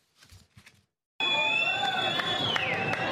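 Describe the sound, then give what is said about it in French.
After a moment of faint voices, a large crowd suddenly erupts into loud, sustained cheering and shouting, with piercing whistles cutting through the dense roar, as the rescue ship Geo Barents, carrying 572 migrants, enters the port of Catania. “des scènes de liesse lorsque le Géo Barents entre dans le port de Catane.”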